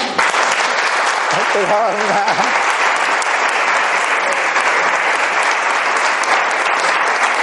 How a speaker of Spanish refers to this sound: Así que bueno, le damos otro aplauso.